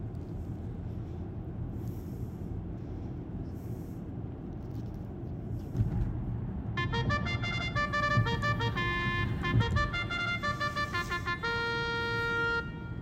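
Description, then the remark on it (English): Steady rumble of road traffic while driving through Loma Linda, at Loma Linda University Health, then car horns start honking about halfway through, a long run of loud, overlapping blasts and toots that continues to the end. “This is what it sounds like when you drive through Loma Linda.”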